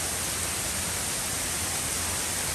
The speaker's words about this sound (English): That is hailstones, if you're listening to it. So heavy, it looks like snow.